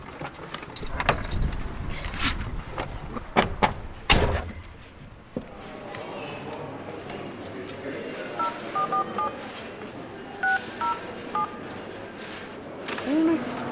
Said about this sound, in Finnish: Nyt se muuttui tämä APC-asema, että mä oon niinku rekisteröitynyt puhelinnumeroon. Mä soitan siitä oveen, niin se aukeaa se lukko.